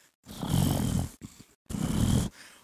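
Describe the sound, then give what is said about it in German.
A voice imitates the loud, heavy snoring breaths of a man sleeping in a neighbouring tent: two long, rasping inhalations with a short pause between, harsh, with no other talk. “Ich höre tatsächlich den Hund, das Auto und nachher war über meinem Zelt ein lautes Atmen.”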